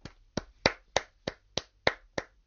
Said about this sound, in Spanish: Pese a todo, a mí me gustaría terminar recordando a Albert Einstein, que fue quien escribió la fórmula esta de mierda. Quisiera pedir un fuerte aplauso para él.